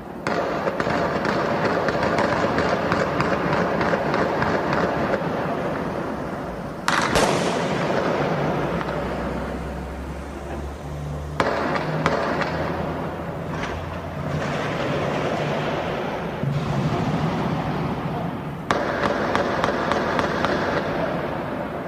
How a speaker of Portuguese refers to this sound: um grupo fortemente armado provocou pânico na cidade de Criciúma, em Santa Catarina. Moradores do município foram feitos de reféns e foi possível ouvir tiros e explosões.